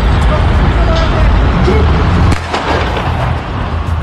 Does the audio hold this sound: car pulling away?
yes